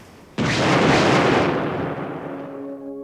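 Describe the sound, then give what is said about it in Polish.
A single loud, sudden blast from explosive charges used to split a stranded ship in two bursts out and rolls into a long, heavy rumble that slowly fades, leaving a faint lingering hum at the end. No one speaks. “Po serii wybuchów dziób został na skałach, a rufa odpłynęła do stoczni”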